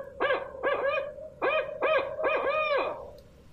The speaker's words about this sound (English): popular ones that the rangers there at this historical park talk about are the barred owl. And I'm going to play a clip real quick